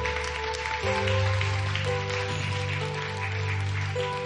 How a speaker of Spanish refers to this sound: Pueden sentarse, darle el aplauso al Señor en esta hora.